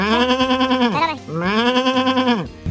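A sheep lets out two long, quavering bleats, each about a second, with a wavering, slightly falling pitch and a short pause between them. Loud and clear, with no talking.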